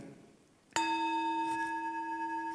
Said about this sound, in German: hört man das hier? fürs Mikro auch, ist für mich eine Klangschale etwas geworden, wo mein Körper langsam merkt, wenn die erklingt, dann ist jetzt aber Schluss mit tun. Jetzt ist Ruhe. Jetzt wirst du ruhig.